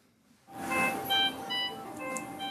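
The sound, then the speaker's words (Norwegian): A patient monitor alarm in the intensive care unit at Stavanger University Hospital sounds for slightly high blood pressure because the patient is moving, a run of bright electronic beeping tones in a repeating melodic pattern, moderately loud, over a low background hum. “Det er bare alarmen som går for litt eh, høyt blodtrykk, bare siden pasienten beveger seg litt.”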